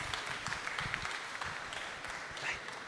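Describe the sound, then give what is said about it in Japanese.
An audience applauds in a steady, dense wash of many hands clapping, fairly even in loudness throughout with no voices standing out. “はい、はい、ありがとうございます皆様拍手をお願いいたします、はい、”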